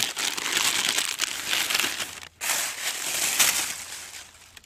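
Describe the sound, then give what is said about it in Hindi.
Old plastic litter, including bottles, crinkles and crunches continuously as it is crumpled and gathered up to clean the place, with a brief pause partway through before the rustling resumes. “कागज का नहीं नाम हमें प्लास्टिक है नुकसान पहुँचाता है इससे लेते हैं तो वगैरह बोटल वगैरह बहुत कुछ ऐसा पड़ा हुआ है इसके कारण यहाँ पे प्रदूषण फैल सकता है इसको देख सकते हो काफ़ी जुना और पुराना प्लास्टिक है”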